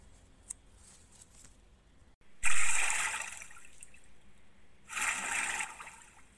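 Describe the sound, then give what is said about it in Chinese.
Two splashes of frogs, Froggy's mother and father, jumping into a pond, each a sudden loud slap that fades into a fizzing wash; the second comes about two seconds later and is slightly softer. No one speaks. “随着两阵的啪啪的水花声，Froggy's mother and Froggy's father sailed in the pond.”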